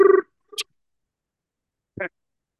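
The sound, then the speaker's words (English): A voice briefly imitates an English telephone ring with a short, buzzy trilled burst, followed by a couple of faint, clipped vocal noises and silence. “Give me give me a ring noise. Ring me in.”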